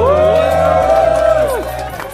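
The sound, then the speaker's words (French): A crowd at a hip-hop show cheers and whoops loudly for a DJ, with voices rising in a sustained, excited roar that holds steady before easing off slightly toward the end. “Faites du bruit pour …, s'il vous plaît.”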